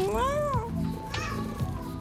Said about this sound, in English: And then suddenly, the one flight attendant just stopped in her tracks and was like, Is that a cat? And I'm like, Yeah, sorry, she's scared.